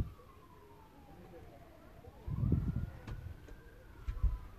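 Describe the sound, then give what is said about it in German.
An emergency siren wails faintly, its pitch slowly falling and then rising again, beneath low murmuring voices and background rumble. “Da ist noch Sirene.”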